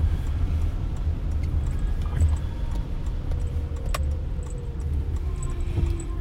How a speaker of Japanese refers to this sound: あ車来ちゃったから曲がれないかもしれないなこれ曲がれないですね直進しちゃいますいつもあの苦戦するところが今日は車がいっぱいでもう曲がることもできません